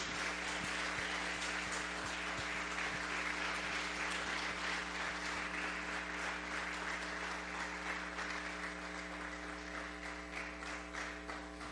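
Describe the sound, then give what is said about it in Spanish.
A church audience applauds steadily for several seconds for all those who serve in the church, a dense wash of clapping with a low steady hum underneath and no voices. “Creo que pues le demos un aplauso a todos los que sirven aquí en la iglesia”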